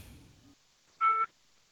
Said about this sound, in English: Here, I hear it in the background. Yeah, here uh, we hear it calling you in the background. Boop, boop, boop.